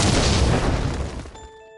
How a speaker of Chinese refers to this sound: 下面马上进入到今天的生活大爆炸环节， 瞬间爆炸。